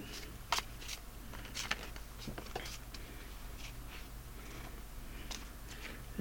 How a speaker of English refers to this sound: Shuffle a little bit. Flip another card. Fate Foretold deck.